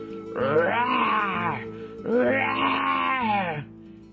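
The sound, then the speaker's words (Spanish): Two long, loud, growling roars, back to back with a brief pause between them, produced by a human voice imitating a fierce tiger. “De repente, escuchó un rugido aterrador”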